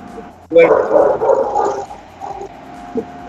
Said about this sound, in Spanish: se pierde un poco tu voz porque hay un perrito que ladra y se mete el sonido del perrito, o sea, te está robando el protagonismo.